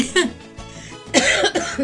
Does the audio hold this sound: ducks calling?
no